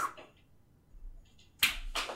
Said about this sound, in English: Oh, dude, I totally made a whip. I heard a whip. It sounded more like a like a butt slap than a, but it's.